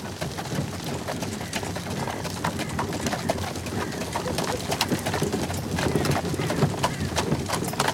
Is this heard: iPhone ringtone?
no